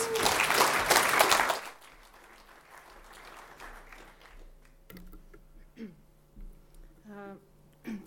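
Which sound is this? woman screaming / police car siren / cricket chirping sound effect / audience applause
audience applause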